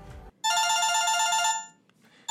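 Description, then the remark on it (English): A telephone rings with a bright, electronic trill lasting about a second, then briefly fades before another ring starts at the end; loud, with no one talking over it. “Excuse me, it, it, seems like my phone is ringing.”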